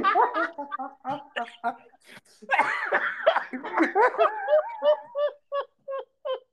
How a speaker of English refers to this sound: I love when you laugh so much you start coughing.